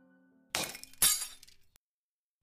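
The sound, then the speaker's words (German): Glass cracks and shatters in two sharp, loud bursts close together, each trailing off in a bright tinkling spray, followed by a faint tick and a final small crack. “Heute hörte ich ein leises Knacken und fühlte einen leichten Riss an der unsichtbaren Wand.”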